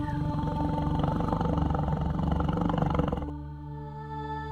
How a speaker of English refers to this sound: My fur tingles as he strokes his strong pads across it, soothingly brushing me. I find that for the first time, and as long as I can remember, I am purring.